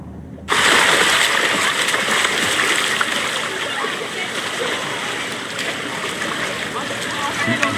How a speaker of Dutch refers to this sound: Nu zit ze onder water. Steeds. En in één keer komt ze dan boven.